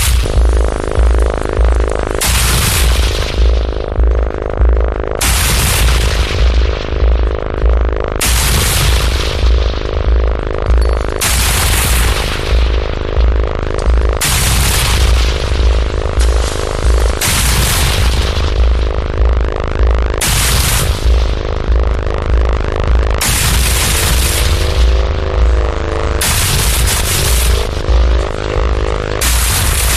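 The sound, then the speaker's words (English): A loud, harsh gorge-genre electronic track by a Japanese artist: dense pounding low end with blasts of bright noise crashing in about every three seconds, relentless, with no voices. “this right now is an artist from Japan called …. Um, it's basically gorge. Uh, and the bre- the genre gorge”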